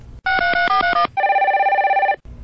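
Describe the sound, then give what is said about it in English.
A rapid run of electronic dialing beeps as an outgoing phone call is placed, then a loud, steady warbling telephone ring lasting about a second, clear with no one talking. “Let's make a phone call.”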